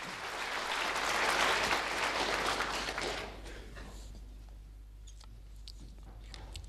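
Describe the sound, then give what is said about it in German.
An audience in Munich applauds to welcome a writer, with a dense, steady roar of clapping for about three seconds, then the applause thins out to scattered, faint individual claps over a low background hum. “Theaterintendant Hans Schweikart zelebrierte den nicht enden wollenden Applaus, mit dem das Publikum den Schriftsteller pathetisch in München empfing.”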